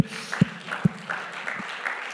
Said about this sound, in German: Vielen, vielen Dank für all das, was ihr möglich gemacht habt, für das Herzblut, was ihr reingesteckt habt. Und ich glaube, äh, ihr habt euch selbst mal einen dicken Applaus verdient.